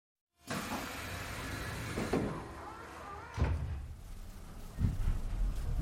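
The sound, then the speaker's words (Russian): Metro train doors thud shut amid a steady, loud mechanical rumble, with a few heavy knocks spaced a second or so apart as the train begins to pull away. “Двери плавно закрылись, и вот поезд уже заскользил.”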